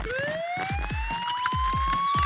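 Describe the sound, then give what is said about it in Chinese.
A police car siren wails with a steadily rising tone over a fast, repeated low thumping pulse, one sweeping whoop arcing up and down near the end; loud, continuous, with no talking. “我就是警车。”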